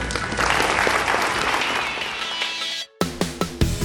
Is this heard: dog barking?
no